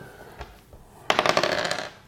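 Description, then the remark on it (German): A small die is rolled across a hard tabletop to decide who goes first: a quick burst of rapid, rattling clicks after a faint knock, fairly loud, then it settles and stops. “wer, anfängt, entscheidet der Würfel.”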